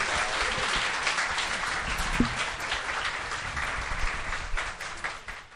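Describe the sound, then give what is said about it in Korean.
An audience applauds steadily for several seconds to send presenters of the show Ddanzi Yeongjingong off the stage, a dense wash of many hands clapping at even loudness that thins slightly toward the end, with no talking over it. “박수로 한번 내려보내도록 하겠습니다.”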